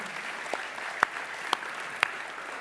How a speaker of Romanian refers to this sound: Hai să aplaudăm din toată inima, să le mulțumim.